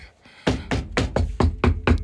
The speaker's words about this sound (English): Knock on wood.